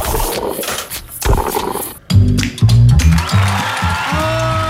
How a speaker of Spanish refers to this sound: Muy bien, fuerte el aplauso para este momento. Qué maravilla.